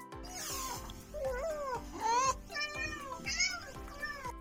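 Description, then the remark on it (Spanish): A cat, Mila, meows repeatedly, a series of drawn-out, wavering cries one after another, fairly loud, with a low rumbling background beneath them. “Ah, ok, ok, Mila, quieres tus galletas de salmón y pocho.”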